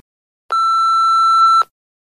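A single steady electronic beep tone from a wedding audio guestbook, about one second long, clear, with sharp onset and cutoff, then silence.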